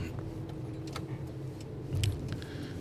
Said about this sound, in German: Und äh, wenn ich mein Auto höre, über dieses Mikrofon hier, dann hört sich das irgendwie immer krank an. Komisch.